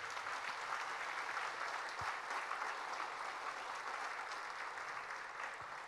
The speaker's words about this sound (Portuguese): Se você está entendendo, dá uma salva de palmas, Jesus.